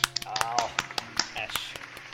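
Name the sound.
small applause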